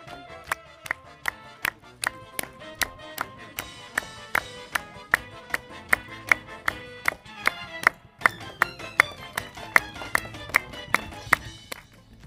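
A cinema audience at a film festival in Arras, France, claps together in a steady, even rhythm, about two claps per second, over the festival's bright, light musical jingle.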